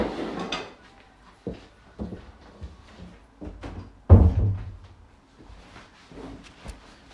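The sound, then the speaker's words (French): A door being opened and closed, with scattered clicks and knocks and one heavy thud midway through, the handling noises coming in short, uneven bursts with no one speaking. “on est juste sur la porte, excusez-moi”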